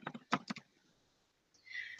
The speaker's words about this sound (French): Alors, je continue un petit peu puisque j'entends que tu écris. Oui, je suis Donc, je, m'excuse hein, si tu entends le bruit du clavier. Je ne sais pas comment régler ça.